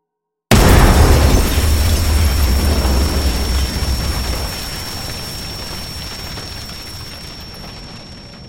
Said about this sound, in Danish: Eksplosionen dræbte Henrik øjeblikkeligt.